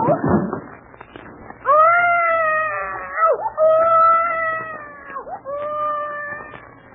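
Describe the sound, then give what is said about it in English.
A baby cries in three long, high wavering wails, each sliding down at its end, following a short rough burst of noise at the start. No talking. “One of the babies has a colic or something.”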